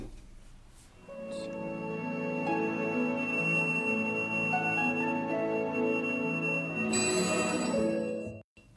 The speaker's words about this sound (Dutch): die hoge fluit. Zo. En dan, dan komt er die, die, die, die tingel. Ik zie echt elfjes voor me.